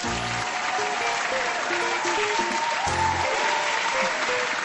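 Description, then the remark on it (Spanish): Steady, dense applause from a show's audience for its technical operator, a continuous wash of many hands clapping at an even loudness throughout, with faint voices mixed in underneath. “Y el público finalmente aplaudió.”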